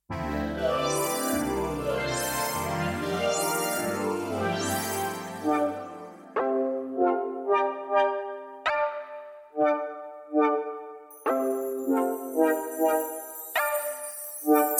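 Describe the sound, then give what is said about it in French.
A synthetic rebetiko track played on Tsugi Radio: a dense, bass-heavy electronic passage gives way to bright, rhythmic plucked notes, with high sustained tones entering near the end. No voices. “Mais d'abord, on écoute cette petite bulle de répético synthétique, de rébético, je vais le dire bien, synthétique.”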